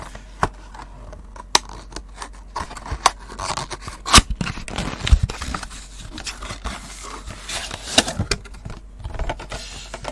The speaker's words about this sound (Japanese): 電気ブランですよ電気ブラン今箱から出しました知ってますか電気ブランっていうお酒品目としてはリキュールと書いてあります